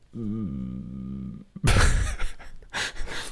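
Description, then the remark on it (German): A person holding their nose shut tries to hum: a low, strained hum held for about a second and a half, muffled and nasal, then breaking off into a burst of breathy exhaling and laughter. “Nee, ja, okay, also kein Summen, es ist Brumm. Das ist, also ja, das mit, ist eher ein Brummen, oh Gott.”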